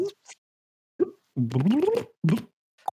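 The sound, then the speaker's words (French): A brownish liquid being poured into a cup in a few short glugging bursts with a resonant tone that rises in pitch as it fills, ending with a small plop. “Il a une couleur, ma foi, brunâtre. Il fait un joli bruit dans le verre.”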